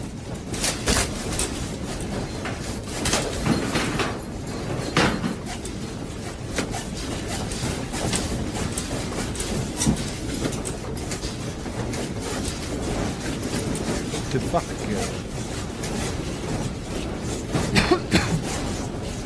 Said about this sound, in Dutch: That's a big one. Earthquake. Earthquake. Oh my god, it's big.